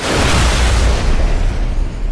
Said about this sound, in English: Um, and also, there's a, a, big shootout with cops and a lot of explosions and.